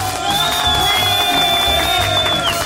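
A long, steady whistle rings out for about two seconds over a dense wash of clapping and cheering from a crowd during a Zoo 90.8 radio show, loud throughout.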